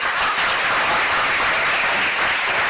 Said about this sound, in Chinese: 我们那些呃老朋友给这些新朋友一个掌声，好吧？